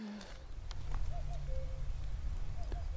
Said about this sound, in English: That's the cuckoo again. Can you hear it? In the background here at Ingleborough National Nature Reserve.